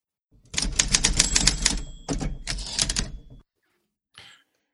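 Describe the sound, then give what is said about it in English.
Rapid typewriter keystrokes clatter in two dense bursts, each ending with a faint bell ding, followed by a brief carriage-return zip. Fairly loud, with no voices. “give us a typewriter typewriter, please”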